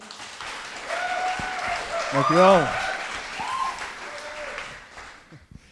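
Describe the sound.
A room full of people claps steadily for several seconds, a dense wash of applause that swells and then fades out, with a single voice briefly speaking over it near the middle.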